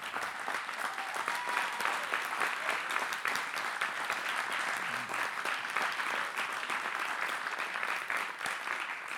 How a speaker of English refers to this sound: Someone was going to clap because we want to say publicly we appreciate you.